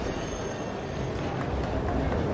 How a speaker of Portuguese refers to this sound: O trem já está chegando aqui na plataforma.